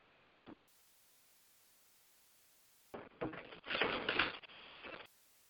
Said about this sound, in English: I live on a, by a busy highway, and I'm I'm broadcasting in the I'm broadcasting in the living room, and usually I'm in the back in another uh, space in my office space, but it's hot in here, so I have to open up a window. Hold on a second.